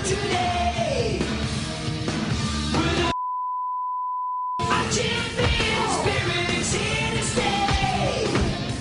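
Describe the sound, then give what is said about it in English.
A loud, energetic cartoon theme tune cuts out abruptly as a steady, pure censor beep lasts about a second and a half, covering the cartoon's name, then the music resumes at full volume. “Uh, notably, we've beeped out the name of it.”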